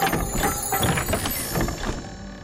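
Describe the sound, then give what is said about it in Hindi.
A madari (street showman) plays a damaru hand drum on the streets of Ayodhya, rattling in quick, steady, rhythmic strikes, fairly loud, keeping up an even clattering pulse for the whole stretch with no voices. “बस फिर निकल पड़े मदारी और उसका खिलाड़ी अयोध्या की ओर अयोध्या की सड़कों पर जब मदारी के डमरू की आवाज गूंजी तो घर घर से बच्चे बूढ़े बाहर निकल आए”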